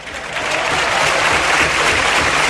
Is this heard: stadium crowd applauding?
yes